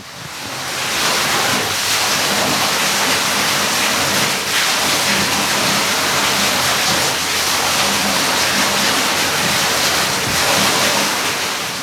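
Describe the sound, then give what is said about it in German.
Water from a stream splashes and rushes steadily over a turning mill wheel at an old mill, a loud, continuous wash of sound with slight surges and no voices. “Hier plätschert nämlich noch ein Mühlrad vor sich hin.”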